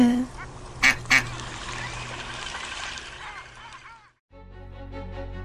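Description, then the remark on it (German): Ducks being fed bread quack in a busy outdoor scene, with two sharp, loud bursts near the start over a steady wash of ambient noise, before the sound briefly cuts out and a low hum takes over. “Noch ein Stück Brot für die Enten”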